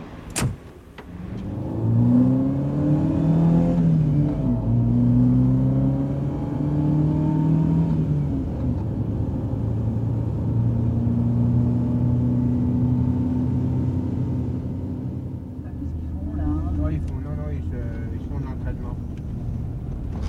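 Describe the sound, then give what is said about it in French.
A car engine accelerates, its steady droning hum climbing in pitch through a few gear changes before settling into a continuous cruising rumble inside the moving vehicle. “On va monter dans la voiture et on va y aller.”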